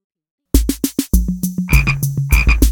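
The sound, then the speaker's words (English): Loud frog croaks in quick repeated pulses, first a short burst of separate croaks, then a denser rhythmic run of throaty calls with no talking. “F is for frog.”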